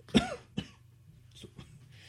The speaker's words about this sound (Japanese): ちょっとあの、咳払いします。